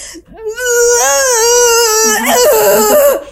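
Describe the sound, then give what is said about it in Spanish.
A woman imitates the strangled, choked scream she made when too panicked to scream: a strained, wavering wail that sustains for about three seconds, breaking and cracking near the end, loud with no other talk. “tanto pánico o sea que literal traté de gritar y no pude gritar. Lo mismo que el sonido que me salió fue.”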